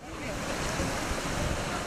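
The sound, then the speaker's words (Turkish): Heavy storm surf surges over the streets of Kurşunlu in Gemlik, Bursa, during a storm with winds reaching 86 km per hour, in a continuous, loud roar of rushing water, with gusting wind noise buffeting the microphone throughout. “Gemlik ilçesinde Kurşunlu mahallesinde deniz taşlı caddeleri sokakları kapladı.”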